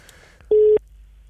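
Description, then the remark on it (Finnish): A single short burst of a steady telephone ringing tone, loud and clear against a quiet background, lasting about a quarter of a second with no one speaking. “Nyt otetaan seuraava puhelu.”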